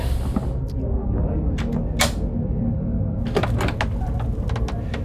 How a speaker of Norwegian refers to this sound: Eller våkna du også av den lyden? Nei, det ble banket på døren.